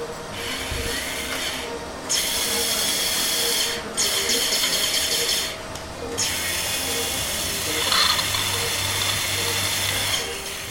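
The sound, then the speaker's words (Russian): A surgical drill whirs in several sustained bursts with brief pauses between them, a steady high-pitched grinding hiss over a low background hum, as a surgeon bores a 9-millimetre channel through a shin bone to pass a cruciate ligament graft into the knee joint. “Вы слышите звуки особой дрели, при помощи которой хирург создал 9-миллиметровый канал в моей большеберцовой кости, чтобы завести через него трансплант крестовидной связки в мой коленный сустав”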